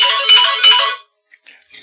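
A loud electronic phone ringtone plays for about a second, a bright, buzzy burst of tones, then cuts off, leaving only a few faint, scattered chirps.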